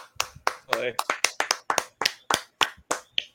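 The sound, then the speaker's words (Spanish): A single person claps about fourteen times in a fairly steady rhythm, each clap sharp and moderately loud, with a brief vocal sound mixed in near the start. “Un aplauso Ash.”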